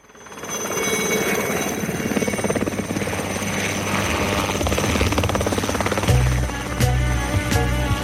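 A helicopter sound effect opens a French song: the rotor chops steadily and loudly, a rhythmic whirring drone that builds in, then low music-like thuds and a bass pulse join underneath toward the end.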